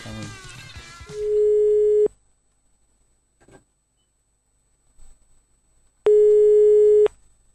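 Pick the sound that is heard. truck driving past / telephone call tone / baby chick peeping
telephone call tone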